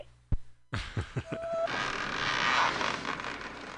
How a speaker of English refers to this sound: That's actually my zipper, Carl, not the movie.